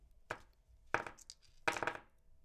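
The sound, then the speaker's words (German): Four aluminium dice, oxidised in different colours, clatter onto a hard surface in three quick bursts, each a sharp rattling tumble with a bright metallic ring, with no talking. “Und dann kriege ich die vier Würfel aus Aluminium.”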